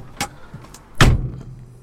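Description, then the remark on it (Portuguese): A car door is shut with a solid, heavy thump, preceded by a lighter click of the latch, with no talking. “estamos aqui juntinhos mais uma vez no carro, não é? Como sempre, completamente sóbrios, como não me só fechar a porta.”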